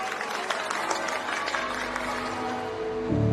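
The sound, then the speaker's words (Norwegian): A large outdoor crowd outside St George's Chapel in London cheers and applauds a newly married couple on a sunny May day in 2018, a dense wash of clapping and voices that swells slightly louder near the end. “George's Chapel i London var badet i strålende sol, og utenfor kirken var det jubel for det nye paret, som var så flotte.”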